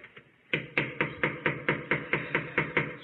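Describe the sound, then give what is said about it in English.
Police pound loudly and rapidly on an apartment door, recorded on a police body camera: about a dozen heavy knocks in a steady, insistent rhythm after a couple of faint taps, with no voices. “The knocking continues for eight minutes until.”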